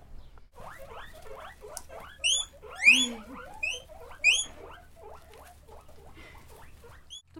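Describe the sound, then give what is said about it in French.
Guinea pigs squeak and chatter in quick bursts, with several high, rising wheeks standing out loud over a steady busy chorus of smaller chirps and rustling. “Alors, on peut commencer le tour par les, les, petits animaux, donc les lapins, et puis les poules, et puis les cochons d'Inde.”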